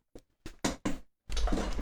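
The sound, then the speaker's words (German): An IKEA Markus office chair, damaged after someone fell into it, creaks and clunks: four short, sharp bursts in quick succession, then a longer, grinding creak that runs to the end. “ganz komische Geräusche immer.”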